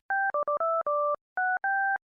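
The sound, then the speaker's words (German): A censor bleep covering a swear word, made of seven quick electronic beeps in an uneven rhythm, each a steady two-toned, phone-keypad-like tone with a brief pause before the last two. No speech is heard. “kannst du es mal bitte piepen, weil solche Worte benutzen wir hier nicht.”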